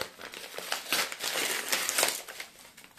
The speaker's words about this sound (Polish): spróbujemy się dostać szybciej. Tu myślę, nam się to uda. Na szczęście to jest tylko koperta bez dodatkowych zabezpieczeń.